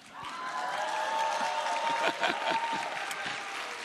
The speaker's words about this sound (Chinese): 我觉得掌声可以再大一点。